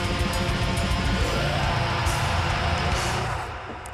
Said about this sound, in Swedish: Nu kommer det bara vara Massa reverb här en jävla lång tid.